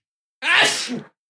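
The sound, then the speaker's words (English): A single sharp sneeze bursts out, lasting well under a second with a sudden loud onset and a quick breathy fade. “Bless you”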